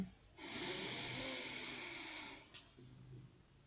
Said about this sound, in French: vous prendre une grande inspiration